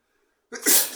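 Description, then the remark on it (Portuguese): A single sharp sneeze bursts out after half a second of near silence, loud and breathy with a bright hissing spray that trails off. “Saúde.”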